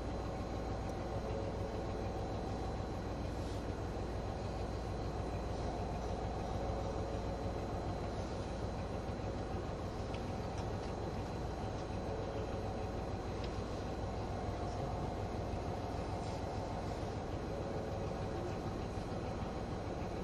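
A steady, continuous rumble of the engine and motors of an HC85 series hybrid Limited Express Hida No. 1 train, running from Nagoya to Takayama, Japan. It is heard from inside a Green Car carriage, with a low drone and faint rattling throughout.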